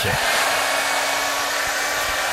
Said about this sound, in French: Elle branche donc son sèche-cheveux et commence à l'utiliser.